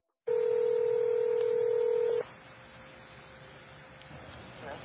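A loud, steady electronic telephone tone holds for about two seconds, then drops away to a faint, hissy phone line with a quieter tone lingering underneath, as a caller phones a shop to ask about a particular book.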